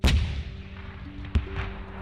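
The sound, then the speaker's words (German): Irregular cannon fire from the sailing-ship naval battle of Navarino on 20 October 1827: a heavy boom opens, followed by a low rumbling roll and then a second sharper blast a moment later, with no voices. “Man hörte noch bis Sonnenuntergang ein unregelmäßiges Kanonenfeuer mit geringen Unterbrechungen.”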